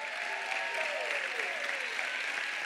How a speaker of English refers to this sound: Everybody, stand up, put your hands together, clap for them that have joined us tonight. Clap your hands for them that have joined us tonight.